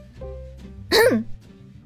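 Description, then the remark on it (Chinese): Two quick coughs, a loud, harsh first burst followed right away by a softer, shorter one, with a quiet low hum underneath and no talking. “我咳嗽两声。”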